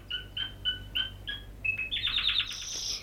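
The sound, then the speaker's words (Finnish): A small pet bird named Dorinda chirps in a quick series of bright, clear notes, then breaks into a faster, busier twittering trill, fairly loud, with no one speaking. “Minun lintuni saa olla Dorinda.”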